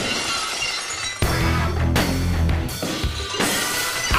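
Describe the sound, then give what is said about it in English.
Stone Cold Steve Austin's wrestling entrance music: loud glass shattering crashes in after about a second, launching into a booming entrance sting, with further sharp shatter bursts repeating over heavy low-end music and no talking. “My God, that's Stone Cold's music!”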